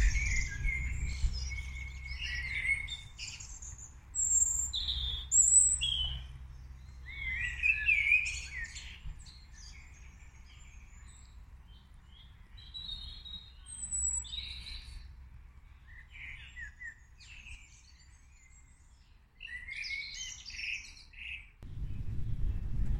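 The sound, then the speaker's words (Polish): Small songbirds chirp and trill in the morning before sunrise, in quick, overlapping bursts, bright and high, with a steady low rumble of background ambience underneath and no voices. “A jak rano, zanim jeszcze wstanie słońce, są takie cudowne ptaszki, świergotki poranne, które śpiewają, śpiewają, jakby chciały zawołać właśnie te wszystkie iskierki słońca.”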